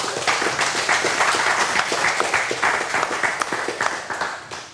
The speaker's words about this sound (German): Dann ist das mit einem Applaus eigentlich gar nicht äh, besser zu beenden, dieser Teil der Sendung.